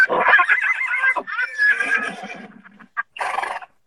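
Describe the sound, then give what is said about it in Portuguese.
A mare neighs loudly, a long quivering whinny that wavers and trails off, followed by a brief pause and a short breathy snort at the end. “Olha, olha para ele a da égua!”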